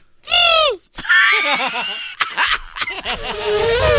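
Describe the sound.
A person imitates an elephant's trumpet with a loud, brassy, high-pitched blast that slides down at the end, followed by warbling, bubbly vocal noises and laughter-like bursts.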